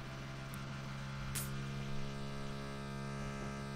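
A steady, muffled motor drone with a low buzzing hum runs throughout from a power drill drilling on the floor above, heard faintly through the ceiling with no one talking.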